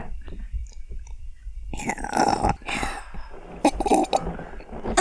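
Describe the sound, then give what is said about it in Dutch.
Slurping and sipping sounds of someone taking a sip of wine, with wet mouth noises and a faint clink, followed by a swallow and a soft exhale. “Ik ga even een eh, slokje van wijn.”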